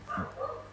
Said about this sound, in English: Sorry about my dog ba- barking in the background, but it is what it is.